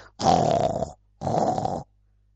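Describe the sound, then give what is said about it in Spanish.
A voice imitates loud snoring with two long, rasping snores in a row, each about half a second or more, separated by a brief pause, forceful. “Y roncaba tan fuerte, tan fuerte,”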